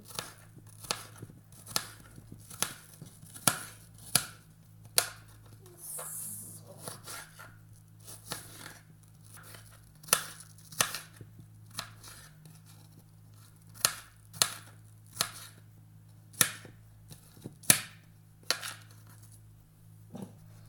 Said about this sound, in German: würde vorschlagen, wir schneiden das jetzt alles in kleine Würfelchen.